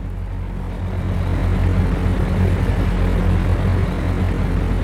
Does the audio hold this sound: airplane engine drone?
yes